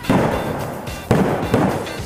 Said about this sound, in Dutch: Nog niet zo lang geleden zag een Sinterklaasfeest er zo uit. Zie stoomboot staken we in het hele land nog vuurwerk af en werd er op veel plekken met karbiet geschoten.